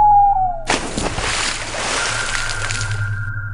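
A person jumps from a boat into water with one loud, sudden splash, followed by a few seconds of churning, bubbling water. A faint whistle-like tone precedes the jump, and no one speaks.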